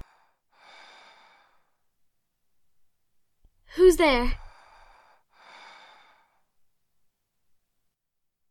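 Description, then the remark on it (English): Two slow, heavy breaths, an inhale and an exhale, rasp on either side of a short, startled spoken question in a King Arthur audio drama; the breathing is recognized as the character Osmond's. Otherwise the surroundings are quiet. “Osmond, I recognize your breathing.”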